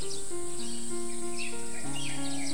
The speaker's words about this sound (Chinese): 先是各种各样的鸟声从四面八方传来，野鸭的声音、布谷鸟的声音、燕子的声音，煞是热闹。